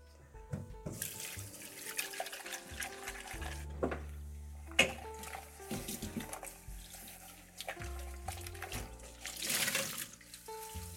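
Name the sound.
water running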